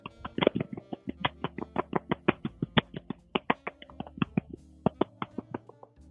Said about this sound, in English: Um, so one thing I do is um, I tap on my stomach, and I, I'm a very I have a very big belly, and it kind of gives off the wave of uh, a soothing wave, if you can hear.